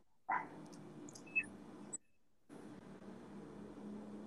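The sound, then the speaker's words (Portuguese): Dogs bark faintly at a house: a few short, scattered barks over a steady background hiss, with a brief silent gap midway and no one talking. “Eu ouvi até a cachorrada da tua casa latindo,”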